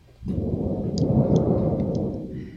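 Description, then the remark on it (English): A big piece of aluminum sheeting is rattled as a thunder sound effect, booming and rumbling like thunder, starting abruptly and sustaining a loud, rolling low roar with faint metallic shimmer on top for a couple of seconds. “Oh yeah, and that's one of the ones I'm doing because because I've got the big old piece of uh, aluminum uh, sheeting here, and if I just rattle that,”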